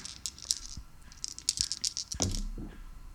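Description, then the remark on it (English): Three six-sided dice clatter and tumble across a hard tabletop, outside the dice tray, in a quick burst of sharp, bright clicks, settling after a couple of seconds with no voices. “I always forget to roll these in the tray.”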